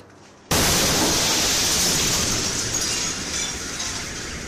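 A sudden loud bang erupts after a brief quiet moment, followed by a sustained roar of shattering window glass and crashing debris that slowly tapers off without fully fading: the airburst of an asteroid about 20 meters across over Chelyabinsk, Russia, in February.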